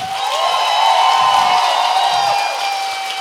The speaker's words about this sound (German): Applaus für euch. Das war am lautesten.